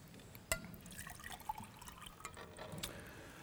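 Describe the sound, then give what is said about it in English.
Water is poured into a glass on stage at a talk, opening with a sharp clink and continuing as a soft, bubbling trickle for a few seconds, with no talking. “Would you like some water? yes, I would like some water.”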